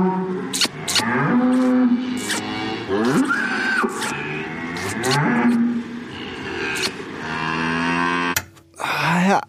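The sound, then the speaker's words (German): A cow moos repeatedly in long, drawn-out calls with wavering pitch, loud, separated by brief pauses, with a sharp knock near the end. “das war ein Dialog mit einer heiligen ja, Kuh.”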